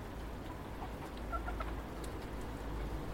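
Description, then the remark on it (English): Hens cluck softly and intermittently over corn, a few quiet, scattered calls over a steady low rumble of background noise, with no voices. “a few little happy noises about the corn, but that's about it at this time of year.”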